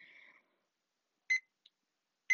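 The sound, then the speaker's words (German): An alarm clock without a snooze button beeping: a faint tone at first, then short, bright electronic beeps roughly a second apart, heard alone without any talking. “Warum ich diesen Wecker besitze, obwohl er keine Snooze-Taste hat”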